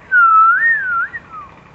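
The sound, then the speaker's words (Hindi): A man lying on his back gazing at the clouds, a blade of grass in his hands, whistles a short, sweet melodic phrase, a clear tone gliding up and down for about a second and a half, fairly loud with no talking. “और वो जब चलने लगे तो उनको अचानक मीठी मीठी सी सीटी की आवाज़ सुनाई पड़ी जैसे कोई व्यक्ति सीटी बजा रहा हो विसल विसल करते हैं ना लोग हम लोग तो वो ऐसे उनको विसल की आवाज़ सुनाई पड़ी जैसे हम लोग ऐसे विसल बजाते हैं”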